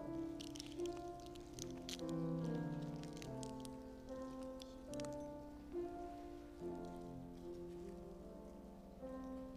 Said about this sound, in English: And now peel the next tab to open up the cup.